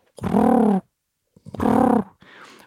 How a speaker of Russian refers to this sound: А еще можно различить их на звук. Если сизый голубь делает так,